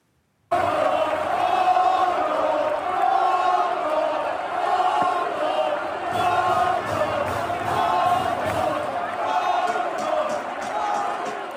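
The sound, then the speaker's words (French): A huge football stadium crowd of several hundred Valencia supporters chants in unison, shouting the word 'mono' (Spanish for monkey) at footballer Vinicius Junior over and over in a loud, continuous rhythmic roar that fills the space. “des supporters de Valence s'adressent à lui, ils lui crient, ils sont plusieurs centaines, ils lui crient un mot, mono, qui veut dire singe”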